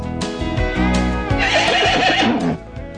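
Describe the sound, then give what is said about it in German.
A horse neighs loudly, a long whinny that rises into a shrill, quavering cry before breaking off, with no one talking. “Selbst die Pferde wiehern es vom Dach.”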